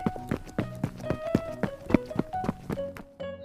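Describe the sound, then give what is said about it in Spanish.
Quick running footsteps patter in a steady rhythm, about four light impacts per second, fairly loud over a soft sustained musical tone, as a man runs away after being stung by an ant. “Y se fue corriendo.”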